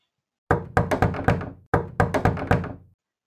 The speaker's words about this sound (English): Well, imagine this. Someone knocks at your door.